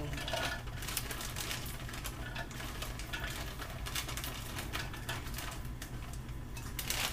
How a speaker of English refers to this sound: I use walnuts and I put my walnuts in. Make sure I can reach here. I put my walnuts in.